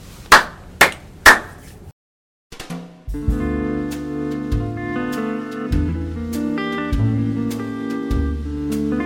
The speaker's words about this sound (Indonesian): udah gue mulai dah tuh tepuk-tepuk.